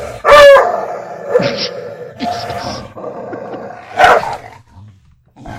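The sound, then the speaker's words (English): A dog chewing on something growls, with two loud, snarling bursts near the start and again toward the end, and lower rumbling in between. No one talks. “My dog is chewing on something, and I'm about to. You're about to him growl at me.”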